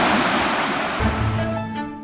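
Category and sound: nature, flowing river water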